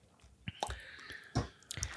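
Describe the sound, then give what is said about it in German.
Quiet wet mouth sounds of someone sipping wine: a few short slurps and soft lip clicks spaced over two seconds, with no talking. “Du sollst ja auch am Anfang nur mal nippen.”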